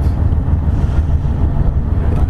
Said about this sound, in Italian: e questo è il possente respiro delle macchine del Savonarola, segno che la barca, che la nave è viva e va verso il suo mestiere, verso il suo dovere che è quello di mantenere delle famiglie.